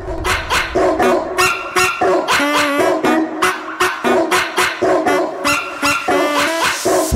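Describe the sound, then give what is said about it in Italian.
A big dog barks loudly in a rapid, steady string of deep woofs, well over a dozen in quick succession, with no voices around it. “Amore, che ne dici di adottare un cagnolone? Non importa razza, pelo, non importa nome. Basta che sia grosso, il resto scegli pure tu.”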